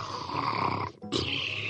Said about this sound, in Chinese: 壮壮只好带我来到河边，指了指一棵大树后面，垃圾食品大魔王正在呼呼睡大觉呢。